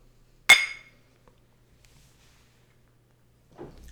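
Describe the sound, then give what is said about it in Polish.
A single bright clink of glasses touching in a toast, ringing briefly before fading into near silence, with a soft muffled sound near the end. “No to zdrówko.”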